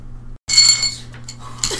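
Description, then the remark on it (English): Dice jingle and clatter in a brief bright burst after a short silence, with a second smaller rattle near the end, all over a low steady hum with no talking. “And we're back with that jingling of dice, I'm not sure that it was heard or not, but we're back.”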